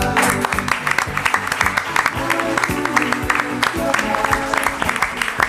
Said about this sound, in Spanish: Este aplauso también va para ti.